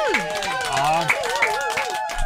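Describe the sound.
A small group claps in quick, uneven bursts for a couple of seconds, with cheerful voices whooping and calling out over the applause.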